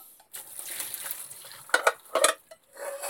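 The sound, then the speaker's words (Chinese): A metal steamer pot, just used for steaming, being cleaned out to prepare for making soup: a steady wash of scraping and swishing, then a few louder clanks and knocks of metal against metal, with no one talking. “好，下面把这个锅，好蒸好的锅呢，把它 清理干净，然后准备啊来煮汤。”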